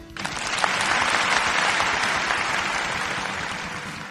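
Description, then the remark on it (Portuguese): A round of applause from a crowd, dense steady clapping that swells quickly and holds loud for about four seconds before easing slightly, with no voices over it. “Então, por favor, uma salva de palmas para Sony.”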